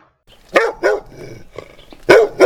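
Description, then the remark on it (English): A dog barks four times in short, sharp bursts, two close together, a pause with a low growl in between, then two more loud barks. “Vicky, you stop barking.”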